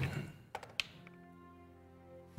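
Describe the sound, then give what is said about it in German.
A die rolled for an Arcana check in a dice game clatters on a table in a few quick, sharp taps that settle fast, landing on 17, after a brief murmur of voice, with a steady low hum continuing underneath. “Würfel nochmal auf Arkane Kunde.”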